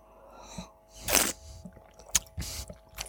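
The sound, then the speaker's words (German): Wet slurping of a drink made with white wine, honey and roasted crushed pepper, a few short noisy sips with a louder hissing draw in the middle, quiet pauses between and no talking. “Ah, Schlürfen ist erlaubt.”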